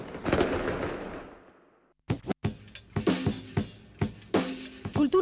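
Firecrackers go off: a loud burst that fades into rumbling crackle, then a quick irregular string of sharp bangs and pops, some with a brief whistling edge. No one speaks.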